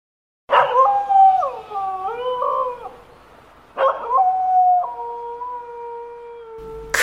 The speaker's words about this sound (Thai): มีเสียงที่มันไม่เคยได้ยินมาก่อน ดังก้องไปทั่ว มอมมันเข้าใจว่าเป็นเสียงหมาหอน แต่หมาตัวที่หอนนั้น มันจะต้องใหญ่โต มหือมาน่าสะพึงกลัวเสียเป็นที่สุด